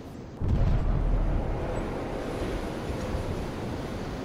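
A single deep, booming underwater blast from a seismic airgun explosively releasing air, used in oil exploration surveys to send sound waves into the seabed, hits abruptly, then rolls into a long, rumbling wash of low noise that slowly fades.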